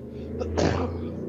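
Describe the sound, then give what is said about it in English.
A single sharp sneeze bursts out, preceded by a quick inhale, over a steady low background hum. “Gesundheit.”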